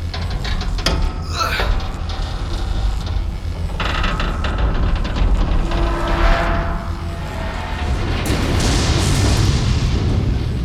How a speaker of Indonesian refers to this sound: Putra Mas berusaha mendorong mesin untuk keluar ruangan dan menjatuhkannya dari atas tangga.